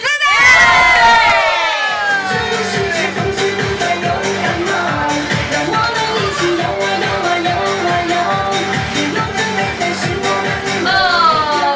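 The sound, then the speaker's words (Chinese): A crowd of competing teams, raising their hands if they hope to win the championship, erupts in a loud, high-pitched group shout of "yes," then keeps cheering and hollering over a steady, rhythmic pulse that continues for about ten seconds before another swell of voices. “OK，呃，希望自己得到冠军的举手让我看一下。来举高举直，大声说 yes！”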